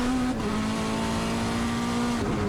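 A loud, steady engine drone from a Porsche RP968 race car with unlimited modifications driving on a track, holding a high, sustained pitch with a brief dip, as if shifting or lifting off, then continuing at speed, with no voices.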